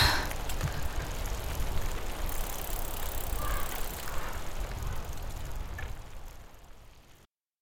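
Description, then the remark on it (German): A steady rolling whir of bicycles being ridden, with a low rumble and faint higher squeaks over several seconds, fading out toward the end. No one speaks. “Jetzt sind sie also unterwegs. Auf Fahrrädern.”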